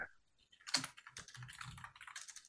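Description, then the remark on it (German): Rapid clicking of computer keys in a steady, dense burst of typing, moderately loud, with no voices, as someone types a question into an AI generator. “Ich habe jetzt geschrieben, was würde Amanda Thompson über künstliche Intelligenz im Blackpool Pleasure Beach sagen?”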